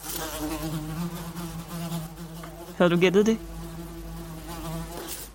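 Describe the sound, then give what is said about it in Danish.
A cheese fly, the kind that lays its eggs in a rotting cheese, buzzes steadily, a continuous droning hum that swells briefly louder for a moment near the middle, with a short spoken question over it. “Det er lyden af en flue. Og ikke en hvilken som helst flue, faktisk men en osteflue.”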